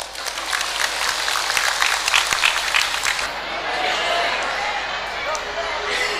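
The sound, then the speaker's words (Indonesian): A crowd applauds steadily, dense clapping at a fairly loud level, with a few sharper claps standing out before the applause settles into an even wash. “kalau kita ingin jadi baik nggak perlu menjelek-jelekan orang lain cukup kita berbuat lebih baik dari mereka maka kita akan jadi baik boleh tepuk tangan”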